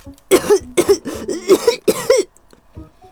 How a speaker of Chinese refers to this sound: 本该听起来十分可怕，但是突然，非常意外，小狼咳嗽了起来。